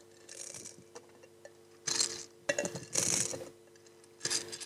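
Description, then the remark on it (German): Beads are poured back into a glass jar in several bursts of dense, bright rattling and clinking, with short pauses between pours and no one speaking. “Ich schütte mal die Perlen wieder ins Glas.”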